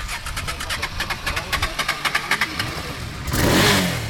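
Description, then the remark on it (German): A motorcycle engine cranks with a rapid series of rhythmic pulses, then catches and roars up in a loud rev near the end, at a motorcycle blessing on Laurentiusplatz in Wuppertal-Elberfeld, Germany, at the start of the motorcycle season after the winter break. “Die Winterpause hat bei einigen Motorrädern ihre Spuren hinterlassen.”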